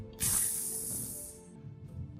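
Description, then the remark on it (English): A faint sizzling hiss of the charred flesh of a slain monster burning at night in a role-play game story starts suddenly and fades out over about a second, above a low, steady hum. “So, um, taking care of the immediate threat and making sure that the su monster won't bother anyone again, the charred flesh uh, smell drifts off into the night, accompanied by a faint sizzling sound.”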